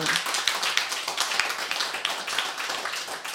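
A small group claps steadily for a few seconds, a dense, crisp patter of hand claps at close range with no talking over it.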